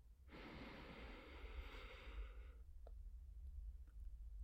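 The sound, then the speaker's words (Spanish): A long, deep breath drawn in, a soft airy rush lasting a couple of seconds, then quiet with faint low background hum. “Respira profundamente.”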